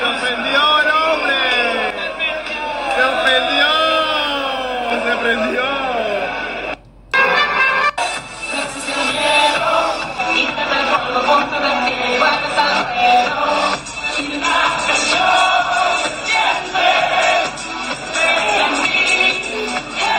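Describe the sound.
A crowd sings together for several seconds. After a brief cut, loud, dense shouting and jeering from many voices continues throughout, close and unbroken.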